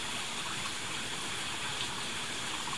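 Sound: flowing stream water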